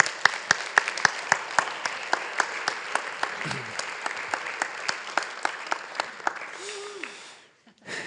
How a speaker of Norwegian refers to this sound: Hun er på vei fram nå, og hun trenger en applaus, tror jeg, på vei opp.